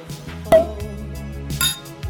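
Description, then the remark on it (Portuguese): Glasses clink in a toast: a bright clink rings out with a short chime, followed about a second later by a second, softer clink, over a steady low musical hum. “Então, tintim, até a próxima taça.”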